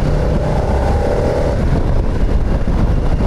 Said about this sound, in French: On n'est pas, pas sur un moteur avec beaucoup d'inertie comme on connaissait sur les longues courses. Là on est sur un moteur réactif, euh, dès qu'on tourne la poignée